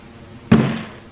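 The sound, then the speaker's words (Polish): A door is being opened, sounding once: a single heavy thud with a brief resonant tail, after near-quiet, with no voices. “Ktoś otwierał drzwi.”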